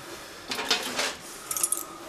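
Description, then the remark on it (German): Two patients' keys jangle in a few quick bursts of bright metallic clinking as the bunch is lifted and shaken to be taken along, with a final cluster of sharper jingles near the end. “Aber wir würden uns jetzt die zwei Schlüssel von unseren Patienten jetzt erstmal mitnehmen.”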